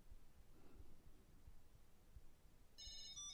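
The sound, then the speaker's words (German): A short electronic item tracker chime, triggered through Alexa, rings near the end from inside a pullover pocket: a series of bright, high tonal beeps, slightly muffled, following low rumbling handling noise. “Ich lasse Ihre Auto klingeln. So, ihr hört's kann euch sagen, wo es ist.”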